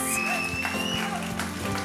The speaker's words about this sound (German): Geben wir unserem Gott einen Applaus für das!